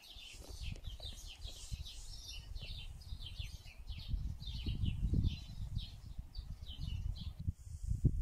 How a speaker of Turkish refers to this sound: Günün zayıflayan ışığı gibi zayıf sesli kuşlar ötüyor kimi zaman.